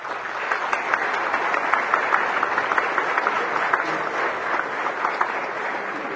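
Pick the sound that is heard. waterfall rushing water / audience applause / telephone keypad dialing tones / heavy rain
audience applause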